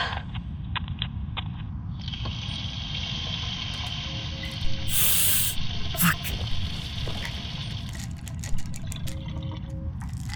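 Water runs steadily from a tap, with a few brief splashes and sloshes as someone splashes water on their face. No one speaks.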